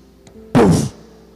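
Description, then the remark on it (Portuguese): A single heavy, dull strike of Moses' staff against a rock, struck in anger in a retelling of the Bible story, a loud broad thud that fades quickly, preceded by a faint small tick; no one speaks. “bateu com raiva na pedra duas vezes, mas aquela pedra era um símbolo de Jesus.”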